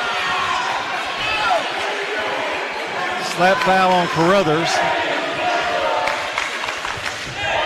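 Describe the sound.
A large indoor crowd at a high school basketball game voices loud, sustained disapproval of a foul call after a whistle, with swelling jeers peaking midway, while an announcer talks over the steady din of the arena.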